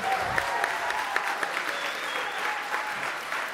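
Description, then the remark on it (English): A live audience at Mayne Stage claps steadily for a few seconds for a featured artist, dense and continuous applause at moderate volume, with no voices standing out. “Our featured artist, …. Let's hear it one more time.”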